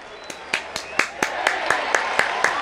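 Steady rhythmic hand clapping in the AM Caffeine Morning Show studio, praising a woman for her singing: about a dozen sharp claps in an even beat, ringing out over a continuous wash of background noise.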